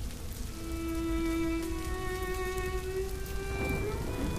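Steady, dense rainfall hisses continuously with a low rumble underneath, while a sustained, droning tone runs through most of it. No one speaks.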